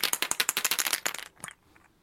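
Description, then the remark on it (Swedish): A die clatters across a tabletop in a quick, dense burst of clicking that slows to a few scattered taps before settling into silence, landing on a four. “En fyra på tärningen.”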